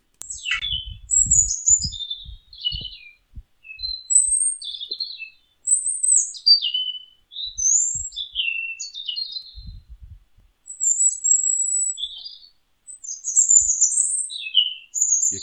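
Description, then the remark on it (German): A nightingale sings continuously in varied phrases of whistles, sharp chirps and rapid trills, clear, with faint low rumbling noise in the background and no voices. “um den Gesang dieser Nachtigall einmal aufzuzeichnen”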